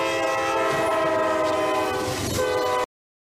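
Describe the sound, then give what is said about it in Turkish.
A train horn blares steadily and loudly for about three seconds over the rumble of a fast-moving train speeding toward a minibus stopped on the tracks, then the sound cuts off abruptly. “Tren son sürat minibüse çarptı.”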